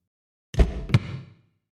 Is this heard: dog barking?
no